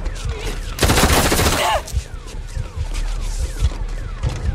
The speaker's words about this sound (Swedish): Och så laddar han om eh, sina gevär och eh, sen skjuter han ner den.